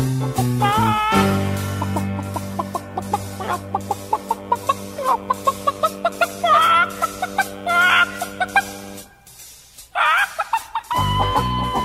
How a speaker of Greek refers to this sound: άμα έχετε κότα, σαν αυτές εδώ, άμα έχετε κότα στο υπόγειο κλειδώστε κάπου, γιατί δεν, ε, τουλάχιστον μέχρι να φύγουνε, μέχρι να φύγουνε και μετά βγάλετε την έξω.